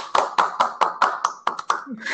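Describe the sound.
Brisk, steady applause welcoming a guest: about ten sharp claps in an even rhythm, fairly loud, with a murmur of voices running underneath.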